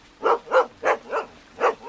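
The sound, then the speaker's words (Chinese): Four village dogs, Dahuang, Yuangulu, Xiaobai and Heidan, barking outside in a burst of five sharp, mid-pitched woofs with an uneven rhythm, fairly loud and standing alone with no voices or other sounds around them. “大黄、圆咕噜、小白、黑蛋儿，村里有名的四条狗。”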